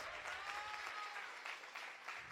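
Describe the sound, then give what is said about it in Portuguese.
An audience in a church claps for the Lord Jesus, a steady, dense wash of many hands with no voices rising above it, sustained at an even level throughout. “Será é que você pode dar um aplauso ao Senhor Jesus?”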